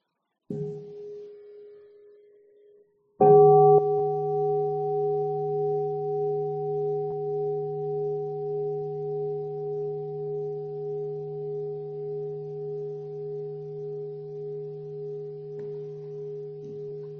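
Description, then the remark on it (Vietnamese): A soft, muted tap on a Buddhist meditation bell invited by a nun so everyone can relax, then a full strike that rings out with deep, pulsing overtones and slowly fades over many seconds. No voices. “xin sư cô thỉnh một tiếng chuông cho mọi người buông thư”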